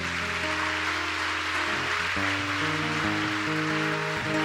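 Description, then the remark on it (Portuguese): An audience applauds in a dense, steady wash of clapping that fills the whole clip, while sustained keyboard chords shift underneath; no one speaks. “Pode aplaudir.”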